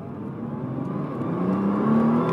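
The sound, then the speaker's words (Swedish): A diesel engine revs up, its low droning hum climbing steadily in pitch and growing louder over a couple of seconds, with a rough rumbling texture and no voices. “Det är lite diesel snurron se dieselsnurron som jag vanligen sitter”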